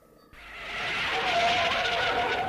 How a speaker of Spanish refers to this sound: Rodaba pedaleando por la calle cuando su bicicleta patinó y, y oyó el chirrido de los frenos de un coche.